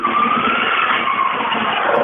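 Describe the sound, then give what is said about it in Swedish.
An old classic Saab car engine from the Olofström motor club runs loudly and steadily for about two seconds, a rough, rattling drone with a faint whine that sinks slightly in pitch. No one speaks. “Från Olofströms motorklubb så har vi en klassisk Saab.”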